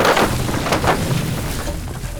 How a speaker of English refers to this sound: The individual pieces of the door frame began to twist like wet rags being wrung out by invisible hands. Spiderweb cracks erupted across the surrounding plaster. The hinges separated on sheared pins just as the door exploded into a rain of splinters.